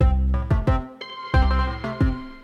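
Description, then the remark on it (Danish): A melodic electronic Zoom video call ringtone plays clearly, a quick sequence of bright chiming notes repeated in two bursts, fairly loud with no voices. “Jeg ringer gutterne op via Zoom videochat, hvor de hver især befinder sig i hver deres lejlighed, isoleret fra hinanden.”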